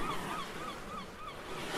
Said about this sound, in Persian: خب موجای دریا آهسته میشن حرکت دستامون آهسته تر میشه الان میتونیم صدای مرغای دریایی رو بشنویم کم کم موجای دریا آروم میشن و به ساحل میرسن